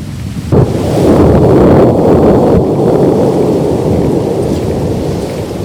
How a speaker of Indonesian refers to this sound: Tiba-tiba kedengeran suara gemuruh bergema yang kencang banget teman Nusantara. Itu dari arah gunung ya.